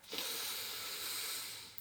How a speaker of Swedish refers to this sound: Så ett djupt andetag kan vi ta in och ut genom näsan så du bara kanske sluter ögonen, hittar en avspänd position, ganska rak i ryggen, avslappnade axlar och så kan du ta ett djupt andetag, andas in.